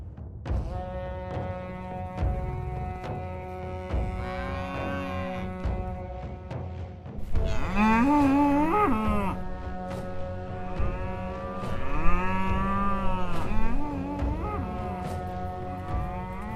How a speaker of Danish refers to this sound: Nogenlunde sådan cirka lyder det, når staben i savnlandet lejre flytter rundt på deres urokser – Resultatet er snart 100 års avlsarbejde af robuste kvæg, der går ude året rundt.